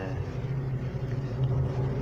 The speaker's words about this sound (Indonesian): Oke, tadi ada kendala pemirsa, suara motor. Padahal jam satu jam mau jam duaan, masih ada juga orang kuliner malam.